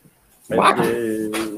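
A shepherd dog lets out a single drawn-out whimpering whine, fairly loud, lasting about a second after a brief quiet start, with no distinct yips.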